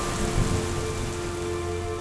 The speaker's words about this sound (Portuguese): A chuva começou a cair, tenue no início e de seguida forte, pesada, como uma cortina soturna de água que se fechava em torno da capela, envolvendo-a na escuridão.